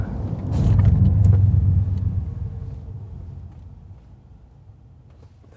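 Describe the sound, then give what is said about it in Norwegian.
Low road rumble from inside an electric SUV swells briefly, then steadily fades as the driver brakes in one motion nearing a roundabout and the vehicle slows to a stop, leaving a quiet cabin hum with no talking. “Bare hold den tanken, fordi nå nærmer vi oss en rundkjøring. Nå skal jeg bare bremse ned og teste igjen.”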